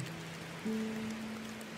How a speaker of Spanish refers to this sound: Llegó la noche y la tormenta parecía que nunca se iba a quitar.